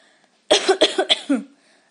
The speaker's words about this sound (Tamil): அடுத்தது காஃப் இருமல் பொதுவாக வின்டரில் கோல்ட் அஃபெக்ட் ஆனால் நமக்கு இருமல் வரும் டஸ்ட் அலர்ஜியாலையும் இருமல் ஏற்படும்